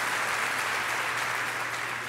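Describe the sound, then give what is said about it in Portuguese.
An audience breaks into sustained applause, a dense, steady wash of many hands clapping at an even level for the full two seconds, with no voices rising above it. “pode ter um salva de palmas”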